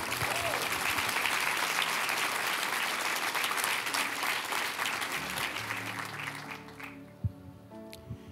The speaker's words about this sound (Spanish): Vamos a darle un aplauso al Señor, fuerte.